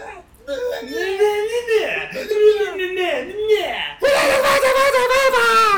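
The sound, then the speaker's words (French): A voice imitates a whiny rock vocal: nasal, swooping moans rise and fall for a few seconds, then break into a loud, strained, sustained screech-like wail. “J'ai l'impression qu'à la fois il se plaint de sa mère et en même temps il crie, c'est très bizarre.”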